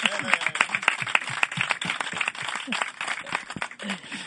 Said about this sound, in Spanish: ¿Te han dado alguna vez un aplauso en un, programa de radio?